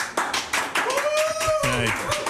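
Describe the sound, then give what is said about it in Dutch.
An audience at a broadcast from museum Het Kromhout in Amsterdam claps in a steady run of sharp bursts, with a voice calling out or talking over the applause partway through. “Ja, er wordt applaus eh, gegeven.”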